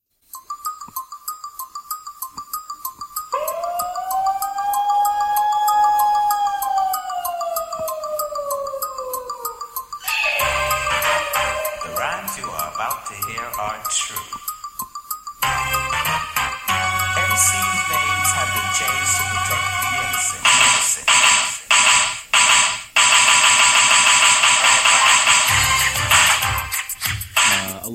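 Old-school rap instrumental that opens with a high, gliding whistled melody over a sustained tone, then drops into a busy beat of rapid, chromatic ticking percussion with deep bass hits.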